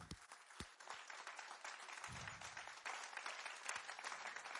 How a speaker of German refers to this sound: Und ich glaube, an dieser Stelle können wir mal Jesus einen riesen Applaus geben und ihn anbeten, ihn verherrlichen und Danke sagen für das, was er für uns am Kreuz da Geben wir ihm einen riesen Applaus. Woohoo!